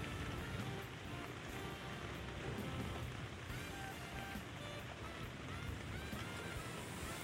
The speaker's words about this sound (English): A little bit of a rainy night. I gotta be honest, I broke open the window of the studio. So if you hear any wind blowing into the mic, it's that.